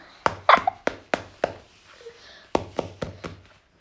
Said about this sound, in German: Klopf mal auf die Wand.